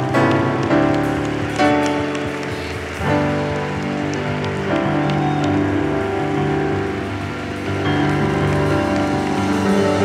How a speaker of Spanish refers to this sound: Wow, wow, dale un fuerte aplauso a él.